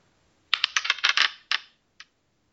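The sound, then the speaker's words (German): Dice clatter across a hard tabletop in a quick burst of sharp rattling clicks, then settle with one last small tap a moment later, landing on a six. No voices. “Egal, würfel einfach mal, bevor ich hier noch mehr Quatsch rede.”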